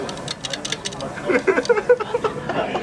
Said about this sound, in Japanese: ほらこの音ねね、一気に乗せるタイプあ俺一気に乗せるタイプですねほらほらええ音ええ音このシズル感をね楽しんでいただければ今蜂の巣を焼いてますね